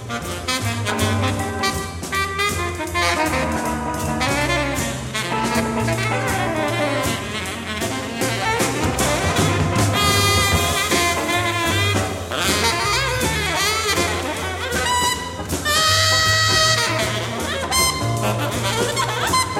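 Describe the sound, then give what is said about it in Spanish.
A jazz recording with saxophone leading over a busy rhythm section of bass and drums, loud and continuous, with bright, wavering horn lines throughout and no talking. “Vamos a escuchar un ejemplo”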